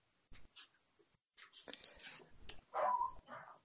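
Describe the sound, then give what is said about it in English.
A dog gives a few short barks and yips, then a high, drawn-out whimper near the end, fairly quiet, with no talking. “Oh, you have to excuse my dog there.”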